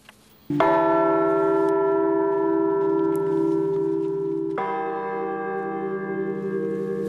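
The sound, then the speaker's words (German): Newly cast church bells for the Frauenkirche in Dresden, Germany, ring out loudly with rich, sustained overtones; one deep strike at the start hums on, and a second strike joins around four and a half seconds in, blending into a resonant chord. “Die neuen Glocken für die Dresdner Frauenkirche.”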